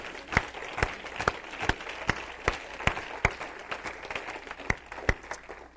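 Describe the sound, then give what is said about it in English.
A church audience claps their hands unto the Lord after a prayer, a steady burst of applause with sharp individual claps standing out above the dense patter of the crowd throughout. “Clap your hands once more unto the Lord.”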